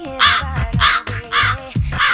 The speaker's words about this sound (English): oh, look, crows.